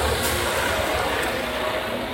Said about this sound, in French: Ah ouais, là il y a un camion c'est Tu sais le genre de camion où il y a du ciment dedans, là, le truc qui tourne un peu, tu vois. Où c'était aux couleurs euh, des États-Unis. Et il est passé assez proche de moi.